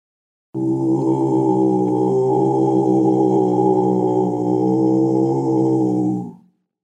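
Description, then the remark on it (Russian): A deep, rough, sustained growl imitating a bear, voiced into a large frame drum so it buzzes and resonates. One continuous loud rumble of about six seconds that cuts off abruptly, with no speech. “В этом случае тоже берут большой бубен, рычат в него медведем.”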